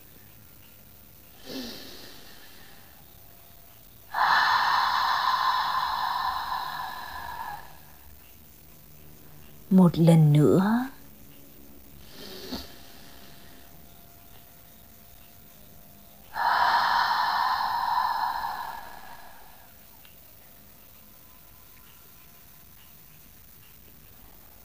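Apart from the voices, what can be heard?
deep inhale through nose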